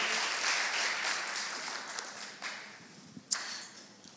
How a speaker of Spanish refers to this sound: Dale un fuerte aplauso a Dios por la palabra y puedes tomar asiento.